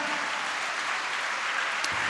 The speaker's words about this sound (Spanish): ¿Cuánto le dan un aplauso al Señor, amado hermano?